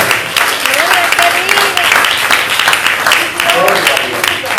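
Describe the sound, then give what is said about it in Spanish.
A large crowd claps steadily and loudly throughout in applause to the Lord, a dense wash of applause with voices calling out and cheering over it, all responding together. “¿Qué tal si le fuerte aplauso al Señor en esta hora?”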